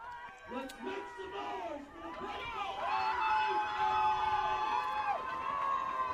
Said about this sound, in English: Fans making some noise here. Fern Weekly Field.